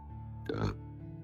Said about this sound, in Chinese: 风卷残云的吃完了两大盘饺子，心满意足的打了个饱嗝。